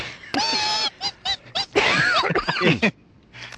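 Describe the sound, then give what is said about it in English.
A voice imitates guinea pig squeaks: a long, shrill squeal, then a quick string of short high chirps and a few louder, raspy wheeking squeaks. “Anything, they make horrible the little high pitched squeaky sounds.”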